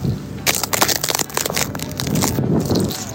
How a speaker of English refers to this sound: Listen to the ice I'm about to step on.